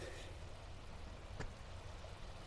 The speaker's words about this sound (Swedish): och vågorna bryr sig inte. Ibland så brukar jag ju tänka på att det här måste vara det äldsta kontinuerliga ljudet i universum. Nej, i alla fall, nej inte universum, men jordens äldsta kontinuerliga ljud.